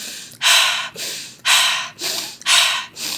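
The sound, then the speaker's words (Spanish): Forceful, rhythmic alchemical breathing: loud sharp inhales alternating with softer exhales, about three full breath cycles in quick succession, with no talking. “Entonces, respirando”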